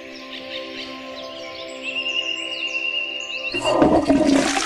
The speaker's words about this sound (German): Können wir ganz kurz eine Nachtigall singen lassen, dass ich kurz mal, einmal kurz, dass ich mal kurz durchatmen